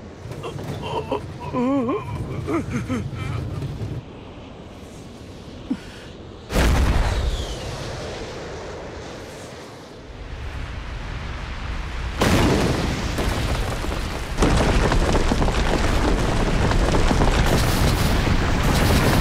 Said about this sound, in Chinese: 爆炸的威力可真强啊！